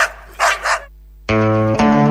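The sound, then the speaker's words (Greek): A dog barks twice in quick rough bursts, then after a short pause lets out a loud, sustained, high-pitched whining yelp, clear with no talking. “μαζί με το κοπάδι δώρο τα σκυλιά.”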